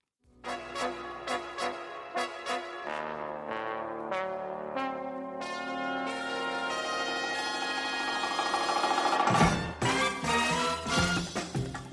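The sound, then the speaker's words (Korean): A pop song played by a host as a music break plays with no talking, opening on a run of crisp, evenly spaced piano-like chords before swelling into a fuller, sustained arrangement that grows steadily louder. “예, 일단은 말씀 좀 드리면서 음악 한 곡 듣고 올게요.”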